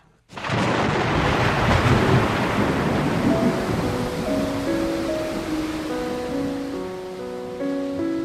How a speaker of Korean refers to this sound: 위험과 환란의 숲에서 맞은 폭풍우는 정말 엄청난 기세로 몰아쳤고